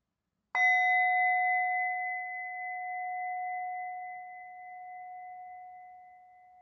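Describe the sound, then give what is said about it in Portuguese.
A single meditation bell is struck once to close a mindfulness practice and rings out with a clear, steady tone that lingers and slowly fades over several seconds, with no voices. “E quando se sentir pronta, quando se sentir pronto, ao soar do sino, você pode abrir os olhos ou simplesmente encerrar essa prática.”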